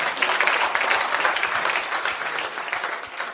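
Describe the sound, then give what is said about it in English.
A crowd claps steadily throughout as a round of applause for Jesus, a dense, continuous patter of many hands at a fairly even loudness, tapering only slightly toward the end. “A round of applause for the way Jesus.”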